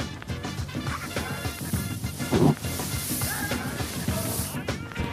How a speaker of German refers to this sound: Gerade greife ich in Hirseschalen.